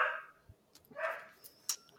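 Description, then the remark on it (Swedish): Dogs bark faintly, two short, muffled barks about a second apart, with a few soft clicks and a brief higher squeak in between, as horses are walked past outside. “Du har inte pli på dina hundar där hör jag”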